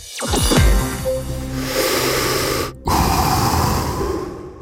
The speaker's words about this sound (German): Das ist jetzt nicht Darth Vader gewesen, sondern so oder so ähnlich klingt das, wenn jemand eine E-Zigarette raucht oder einen Verdampfer benutzt.